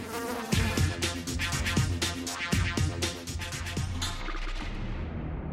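A fly buzzes loudly, a steady drone that swells and pulses in a regular rhythm for several seconds, with no one speaking.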